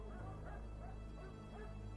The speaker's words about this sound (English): The solemn quiet was broken by the barking of dogs, faint through the shadowy trees. From the number and location, it seemed like the RPD canine unit had just reached his house.